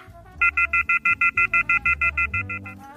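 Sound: phone hung up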